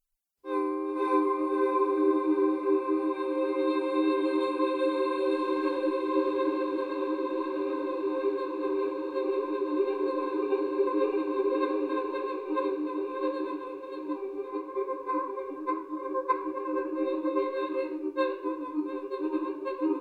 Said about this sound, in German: Und ich spiele jetzt einfach mal einen Akkord und das Ganze ohne den Hall.